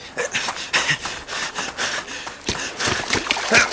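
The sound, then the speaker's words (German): Water splashes in a series of uneven bursts as a ball rolls into the water and is churned about, with quick panting and gasping breaths in between. “schnell, Henry, der Ball rollt ins Wasser”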